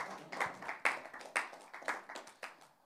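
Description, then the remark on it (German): Light audience applause: scattered, uneven hand claps from a small group, a few sharp ones standing out over softer clapping, fairly quiet and with no voices. “ähm, dürft euch gerne mal selber einen Applaus geben an der Stelle.”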